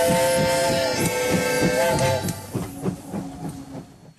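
A Trans-Siberian train departing from the station in Moscow rolls along the rails with steady rhythmic clickety-clack and a sustained high tonal whine, loud, with no voices.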